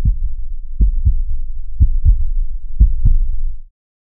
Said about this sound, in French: L'un de nous s'allongeait sur un banc, et l'autre posait son oreille sur son torse pour écouter les petits bruits de battements de cœur, et vice-versa, à l'infini.